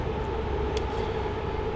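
A train rumbles past, a steady heavy roar with a faint droning hum and a single sharp clack partway through.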